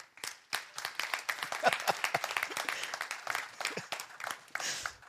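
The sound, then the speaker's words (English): An audience at a C3 church service claps together in a dense, steady burst of applause lasting several seconds, with many overlapping hand claps forming a lively, uneven patter that tapers off at the end. “Some of you like, crap, some people clap and I got to clap.”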